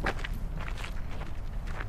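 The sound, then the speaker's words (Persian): Footsteps of two people who got out of a car walk at a steady pace toward a man standing by a car in the middle of the desert, several crunchy steps over a continuous low rumble of background noise, with no voices. “نوری کنار یه ماشین وسط بیابون ایستاده آباد و سروش از ماشین پیاده میشن و به سمت نوری میرن”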